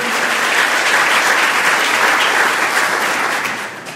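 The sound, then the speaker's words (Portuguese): A church audience applauds for Jesus with dense, sustained clapping that holds steady and loud for several seconds before tapering off slightly at the end, with no voices standing out. “Aplaude ao Jesus é bom, Ele é poderoso.”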